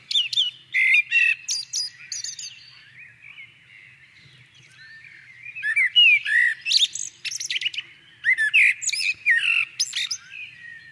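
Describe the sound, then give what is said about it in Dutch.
A blackbird sings a varied, melodious song of whistled and trilled phrases in bursts, clear, with short pauses between phrases and no one talking. “En ook ooit verkozen tot het meest geliefde ja, zeg vogelgeluid van Nederland.”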